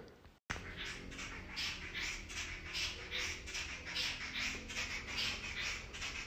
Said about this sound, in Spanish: Con estos sonidos de estas aves antes del amanecer, al natural, después de haber estado en la reserva de la biosfera de Calakmul. Ahora estoy en una población cercana de Coatepec, en Veracruz, donde hay un centro de meditación vipassana.